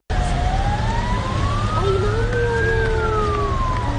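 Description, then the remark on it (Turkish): Several sirens of fire, ambulance and police vehicles sent to a passenger plane crash at Sabiha Gökçen Airport, Istanbul, where the plane skidded off the runway on landing and broke into three pieces, wail together, their pitches slowly rising and falling and overlapping, over a steady low rumble of traffic and engine noise. No one speaks. “Olay yerine çok sayıda itfaiye, sağlık ve polis ekibi sevk edildi.”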